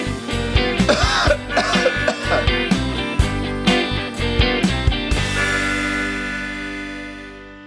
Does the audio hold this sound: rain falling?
no